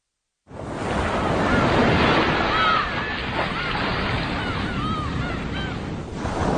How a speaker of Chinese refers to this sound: 开山岛边的海浪声，是王继才生命中最熟悉的声音。开山岛位于我国黄海前哨。